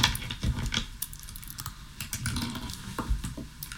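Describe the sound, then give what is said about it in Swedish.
Dice rattle and tumble across a hard surface in a quick burst of small clicks and clacks, moderately loud, with no voices; a dice roll made during a game, landing on six. “Men jag skulle behöva ett tärningslag för att se om eh, hon lyckas lura dig.”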